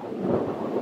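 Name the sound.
thunder rumbling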